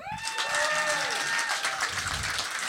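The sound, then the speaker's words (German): An audience of regular listeners claps steadily on request for a few seconds, a dense wash of many hands with a faint whistle-like tone gliding through the start and some murmuring underneath. “Äh, alle klatschen, die uns hören regelmäßig.”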